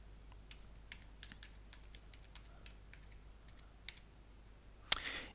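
Quiet, steady keyboard typing of an email address into a field of a web photo album page, with a string of light key clicks at an irregular pace, ending in one louder, sharper keystroke. No one speaks.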